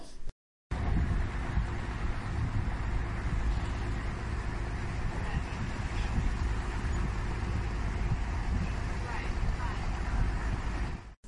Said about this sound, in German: Das ist auch Wasser. Ich hätte jetzt wieder auf Regen tippt, aber äh, Nein, das ich glaube nicht. nicht. Ich finde, es tönt, als wäre es auf einem Boot gewesen. Das könnte sein, ja etwas auf einem Boot? Es ist auf einem Boot.